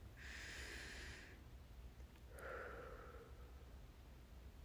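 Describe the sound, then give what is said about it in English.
A slow, deep breath drawn in through the nose as a breathing exercise, followed after a short pause by a long, audible exhale, with no talking. “Like, should we take a breath right now?”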